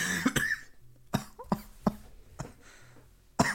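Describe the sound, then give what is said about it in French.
A coughing fit: about seven or eight harsh, hacking coughs in quick, uneven succession, with short wheezy breaths between them and no talking. “L'Espace Toux”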